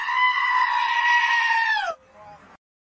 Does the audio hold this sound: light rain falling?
no